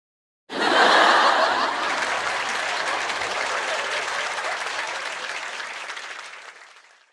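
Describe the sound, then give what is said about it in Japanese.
A sudden burst of audience applause and laughter from a live comedy crowd, loudest at the start, then a steady clapping roar that gradually fades out. “そうして、なんとなく来てみた久しぶりのお笑いライブ。”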